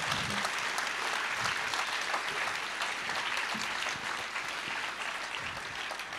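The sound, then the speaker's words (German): Sustained audience applause thanking people for sharing their stories and for their honesty, a dense wash of many hands clapping at a steady level throughout, slightly thinning toward the end, with no speech over it. “Vielen Dank fürs Erzählen, das ist euer Applaus für eure Ehrlichkeit.”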